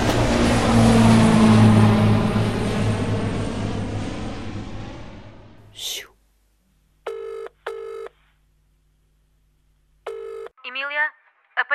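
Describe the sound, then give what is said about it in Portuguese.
A loud airplane engine roar of a plane departing for Porto gradually fades away over several seconds, then a telephone rings twice in short electronic bursts, with a brief voice at the very end. “Acompanhaste-me no avião, estou de partida para o Porto.”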